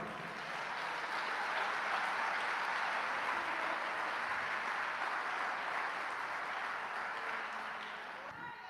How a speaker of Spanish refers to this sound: Denle palmas a Cristo, hermano.